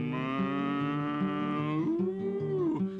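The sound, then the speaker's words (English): A voice imitates a cow's moo with a long, sustained low tone that rises in pitch near the end, with no other talk over it. “Well, I had me a cow, and the cow pleased me, and I fed my cow on the yonder tree, and the cow went mm”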